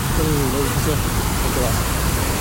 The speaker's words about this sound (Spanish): La fuente. ¿Se oye la fuente? ¿Sí se oye? ¿Se nota que estamos en la calle? Es más, está cayendo agua en el teléfono entonces se está notando mucho.